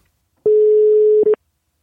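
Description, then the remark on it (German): A steady, mid-pitched outgoing telephone call tone, as a call is placed to bring in a guest, sounds for under a second, cuts briefly, then returns as a short blip before stopping. No voices are heard. “Und äh, dann geht der Ruf jetzt raus.”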